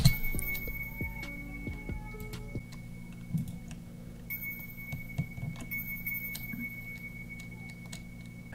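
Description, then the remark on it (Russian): A second melody of small bells in a music track chimes in a steady beat, light clinking notes over a low sustained tone and soft rhythmic ticks, with no voices. “Дальше идет мелодия э, вторая, колокольчиков тоже.”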